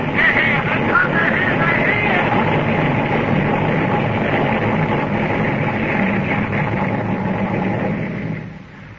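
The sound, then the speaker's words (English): A flying saucer descends through the sky over the mall in Washington, D.C., with a loud, dense, whirring roar that holds steady for several seconds, then quickly dies away into quiet as it settles on the grass. “Incredibly, it was here burning down through the sky over Washington, D.C., hovering over the mall. Descend.”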